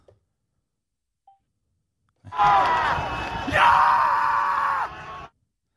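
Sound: football fans cheering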